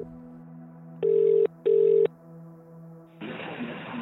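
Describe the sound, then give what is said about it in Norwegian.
A telephone call to an expert on GPS devices: two steady ringing tones, each about half a second with a short gap, sound over a low hum, then a burst of hissy line noise as the call connects. No one speaks. “Vi er ikke eksperter på GPS-enheter, så vi ringer noen som er det.”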